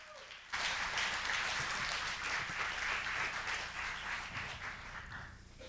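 A church audience breaks into sustained applause for its outreach pastor, a dense wash of many hands clapping at once that starts abruptly and holds steady for several seconds, with faint voices mixed in.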